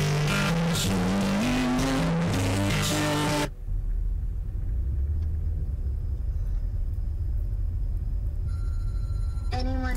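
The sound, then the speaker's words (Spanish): Brief music gives way to a loud, steady car engine rumble, with a thin high squeal of tires drifting in over the low roar as the car keeps driving, chasing a white car. “Bueno, el auto sigue, sigue persiguiendo.”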